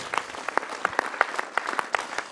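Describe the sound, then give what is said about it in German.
An audience gives Jesus a big round of applause, a dense patter of many hands with sharper individual claps popping out above the crowd, sustained and fairly loud with no voices. “Und vielleicht können wir auch mal einfach Jesus einen riesen Applaus für das geben.”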